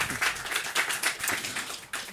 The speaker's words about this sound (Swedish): Och så ska vi kalla upp vårt sista gäng. Ja, en applåd.